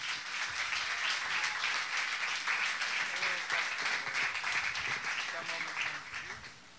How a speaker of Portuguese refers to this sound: por favor, aplauda ao Senhor. Aleluia!